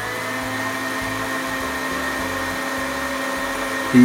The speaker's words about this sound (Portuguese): Bom, vamos bater tudo isso aqui no liquidificador com um pouquinho de água. Põe um pouquinho de água só para ajudar a batida, tá? Vamos lá.